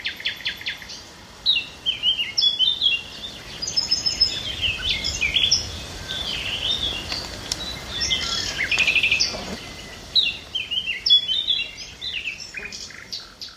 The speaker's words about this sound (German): Zwei Nachtigallen, ein paar Pirole, eine Mönchsgrasmücke und ein Buchfink sitzen da in den Baumkronen